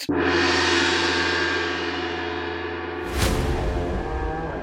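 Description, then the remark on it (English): A loud gong is struck and rings out with a rich, lingering shimmer, then is hit again about three seconds later, the second blow bursting bright before the tone sustains. No voices. “I want them to be alerted by a loud gong sound.”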